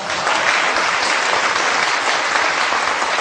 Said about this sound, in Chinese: 我们把最热烈的掌声还是献给我们这次这个课程的组织者，这些工作人员啊，他们确实为我们的课程付出了辛苦和劳动，以及包括我们这个会场啊，咱们北大会场的这些工作人员，这些所有的工作人员、摄影、摄像师，我们都给他们掌声，好不好？